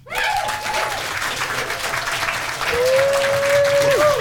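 A crowd applauds steadily, dense clapping filling the whole stretch and swelling louder near the end, with a whistle-like tone sliding through briefly.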